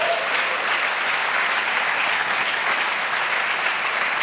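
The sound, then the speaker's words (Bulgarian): Steady applause from an audience in the balcony fills the whole stretch, a dense wash of many hands clapping at an even level without pause, with no voices standing out above it. “А, начина по който балкона ръкопляска ме кара да си мисля, че не са убедени, че това, което казваме е така.”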